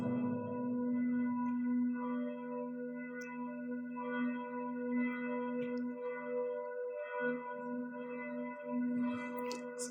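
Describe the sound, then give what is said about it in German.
Church bells ringing in a steady, overlapping wash of sustained metallic tones that hum on without pause for about ten seconds, with no voices. “die Glocken läuten hier immer, wenn was Wichtiges kommt.”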